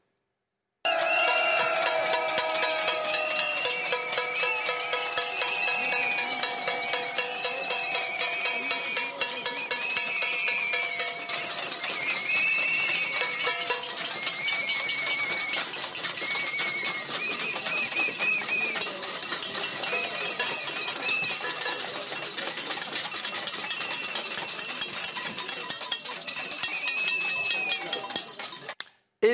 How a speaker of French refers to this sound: Macron, oui, attendu vers 13h30 à Muttersholz dans le Haut-Rhin et accueilli déjà par une cinquantaine de manifestants. Ils se sont rassemblés un peu avant midi pour offrir au président notamment un concert de casseroles. Regardez ou plutôt écoutez.